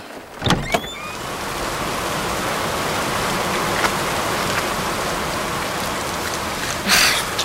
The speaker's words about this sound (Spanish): Pero con esta lluvia